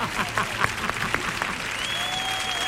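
An audience applauds, starting with distinct scattered claps that blend into a steady wash of clapping, while a thin high whistle-like tone sustains toward the end.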